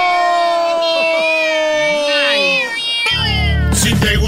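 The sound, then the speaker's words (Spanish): Several kittens meow in overlapping, drawn-out cries, fairly loud, before a sudden burst of noisy, crowd-like commotion takes over for the last second. “Apenas pasaron empatando, para mí va a ser duelo de gatitos.”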